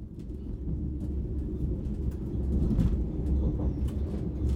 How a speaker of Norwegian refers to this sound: Vi sitter på toget og er på vei mot Drammen.